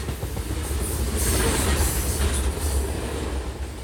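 A train rumbles past on the rails, loud, a steady heavy roar of wheels with faint metallic squeals riding above it, no voices.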